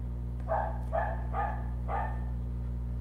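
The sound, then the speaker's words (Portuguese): A dog named Bob Marley barks four times in a quick, uneven series of short, mid-pitched woofs, likely at a passing cat, over a steady low hum, with no talking. “Participação especial do Bob Marley. Isso deve ser um gato que está passando e ele é o dono.”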